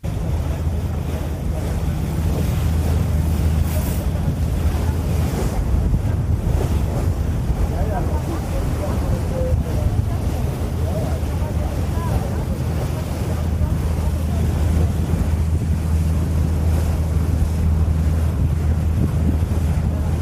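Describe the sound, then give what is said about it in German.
Recorded at the very front of a ship on the way to Svolvær: steady rushing wind buffets the microphone while waves wash and splash continuously against the moving hull, a loud, dense roar with a low engine-like rumble underneath and no clear talking. “dann brauche ich einfach ein bisschen meine Ruhe und deswegen war ich ganz vorne am Schiff und habe da auch gefilmt und äh, wie sich das anhört, das hört ihr jetzt.”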